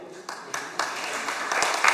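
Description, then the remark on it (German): An audience breaks into applause for Team Kronleuchter, a dense wash of many hands clapping that starts modestly and swells louder over about two seconds, with a few sharper claps standing out. “Und nichtsdestotrotz natürlich auch noch einen schönen Applaus an das Team Kronleuchter.”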